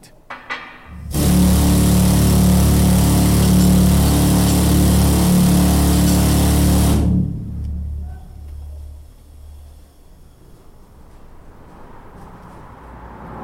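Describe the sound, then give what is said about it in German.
A miner's powerful rock drill in a Swiss mine roars loud and steady for about six seconds, a harsh mechanical grinding with a deep motor hum, then cuts off abruptly, leaving a low rumble and quiet background. “Der Mineur ist immer am Bohren.”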